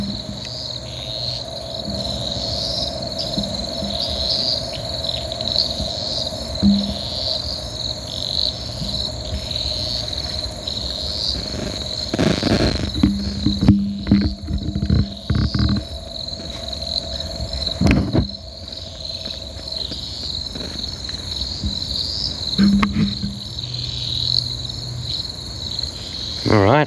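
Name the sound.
cane toad calling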